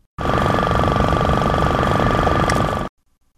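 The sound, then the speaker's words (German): A vacuum pump, used in a Girls' Day experiment to burst balloons and chocolate marshmallows near the PETRA III tunnel of an electron synchrotron, runs steadily for about three seconds, a loud mechanical drone with a fine rapid pulsing, starting and stopping abruptly with silence on either side. “Das war eine Vakuumpumpe.”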